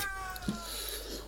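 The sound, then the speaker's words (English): A cat lets out a short, drawn-out meow at fairly low volume, its tone sliding downward, with a faint background hum and no one talking. “And that's my cat.”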